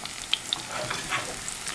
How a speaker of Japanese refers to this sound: なんかイメージとしてはなんかネギをじっくり焼くと中こうとろとろの甘いネギ、はい、美味しいじゃないですか、あれの香りとか甘みを全部こう油に移していくみたいな作業というか、